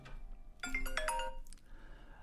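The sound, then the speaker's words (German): A telephone rings again with a bright, melodic electronic tone sequence lasting about a second, clear, over a quiet low hum with no talking. “Jetzt klingelt dann schon wieder das Telefon, wie vorher auch.”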